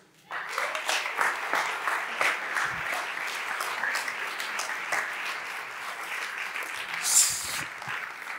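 An audience breaks into steady, sustained clapping that starts abruptly and holds at an even level for several seconds, with a brief high whistle or cheer rising near the end.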